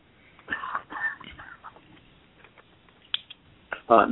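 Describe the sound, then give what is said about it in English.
Several short, rough bursts of throat clearing, spaced unevenly over a few seconds and ending with a louder, harsher burst. “Excuse me a second, clear my throat.”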